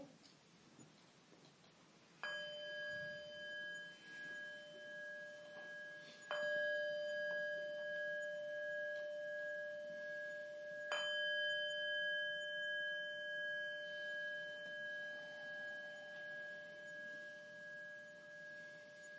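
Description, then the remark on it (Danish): A meditation bell rings three times to begin a meditation session again, each strike clear and resonant with a long sustained hum that slowly fades, spaced about four seconds apart. “Så har vi starter igen med tre klokkeslag.”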